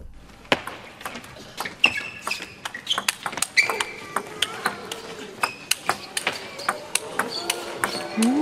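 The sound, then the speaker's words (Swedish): Crisp, rapid clicks of table tennis balls striking a table in quick irregular rallies, with sneakers squeaking on the floor and a murmuring crowd in a packed arena. “det underbara ljudet av liksom pingisbollar som studsar mot ett bord i en fullsatt arena samtidigt som det gnisslar från gympadojorna mot mm.”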